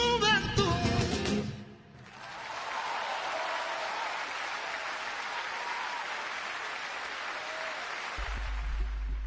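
A song's last sung notes end, then a steady, loud burst of applause from a crowd follows and keeps going for several seconds, with a low hum entering near the end.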